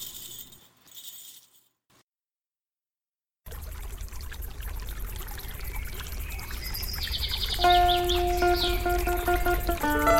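On a lovely day, after a short quiet start, flowing river water rushes in steadily and grows slightly louder, with birds singing in bright chirps over the water near the end. No one speaks.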